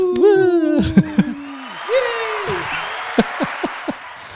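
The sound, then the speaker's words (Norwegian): Brief applause congratulating a newly elected student leader at Nord University in Bodø: sliding, whooping vocal cheers give way to a burst of hiss-like clapping noise and four sharp, evenly spaced hand claps at the end. “Det var mer applaus enn da jeg ble valgt, så det er jo et stigende kurve.”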